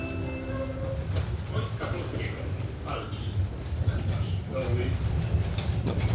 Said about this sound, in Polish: jedziemy tutaj tramwajem, rzuca nami dość, y, dość mocno. Wygląda na to, że jest to kolejna linia w Łodzi lub okolicach, która tak naprawdę zostanie zlikwidowana przez dramatyczny stan techniczny, że po prostu umrze technicznie